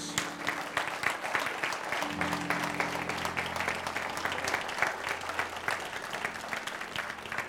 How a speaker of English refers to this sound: Would you give uh, your pastor another round of applause?